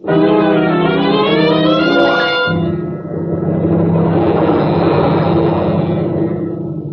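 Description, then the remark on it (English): A loud storm pounds around a cabin, rumbling without pause: it opens with a rising, whistling howl before settling into a dense, steady roar over a deep low drone. No voices are heard. “With the storm pounding around your ears, forcing you to keep close to the cabin.”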